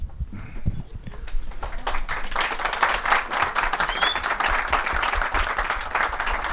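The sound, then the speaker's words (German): A crowd applauds steadily, many hands clapping in a dense, even crackle that holds for about six seconds after a brief low rumble at the start. “Applaus finde ich geil.”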